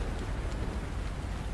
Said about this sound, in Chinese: 雨一直下，越下越大，仿佛天空之上是一片漆黑的大海。雨滴永远停不下来。